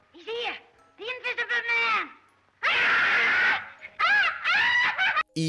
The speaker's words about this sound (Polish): w pamięci utkwi, utkwili wam ci ludzie, którzy biegali wszędzie w popłochu, darli się, krzyczeli i byli ogólnie bardzo, bardzo irytujący.